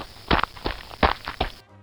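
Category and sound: human body sound, footsteps of someone running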